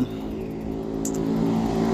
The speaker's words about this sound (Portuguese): Lá vem moto. Caralho, eu não consigo me concentrar.